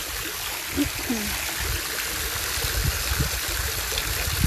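waterfall flowing water

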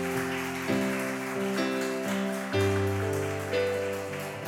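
audience applauding

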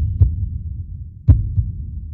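heartbeat sound effect

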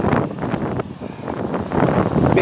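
wind blowing into microphone

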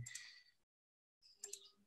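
computer mouse click

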